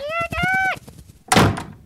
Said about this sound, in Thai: พ่อปิดประตูเรียบร้อย คราวนี้ ไก่ต้งก็จะหนีไปไหนไม่ได้อีกแล้ว